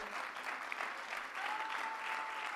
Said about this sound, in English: Oh, clap your hands unto the Lord today.